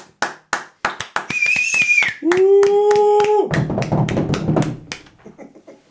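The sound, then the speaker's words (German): Live audience applause for Wachtmeister Dimpfelmoser at an event: sharp, rhythmic claps that swell into dense, loud clapping with a couple of long sustained whoops, then gradually thin out and fade. “Da brauchen wir den nicht über irgendeine so Atmo-App einspielen, sondern ähm, wir haben ein Real live Applaus für unseren Wachtmeister.”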